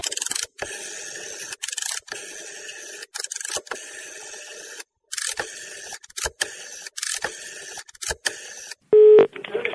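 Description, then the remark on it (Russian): A telephone being dialed to call a United Russia candidate for deputy during the live program «Парадная»: a run of irregular clicks and rattling keypresses with short pauses, ending in a brief steady electronic tone. “немедленно ему звоните.”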